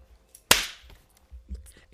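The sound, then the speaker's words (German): A single sharp hand clap cracks out suddenly, bright and loud, then rings off quickly, followed by faint low murmurs of voices. “deswegen heute 3-2-1-Rekord, 3-2-1-Klatsch.”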